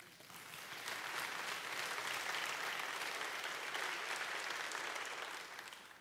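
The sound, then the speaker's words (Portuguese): A crowd claps steadily for about six seconds in praise of the Lord, a dense, even patter of many hands that fades in quickly, holds at a strong level, then tapers off at the end. “Aleluia, aplauda Ele.”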